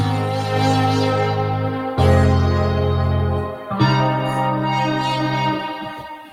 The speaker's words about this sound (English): The Rev One, the big Yamaha rack mount thing with the kind of uh, remote control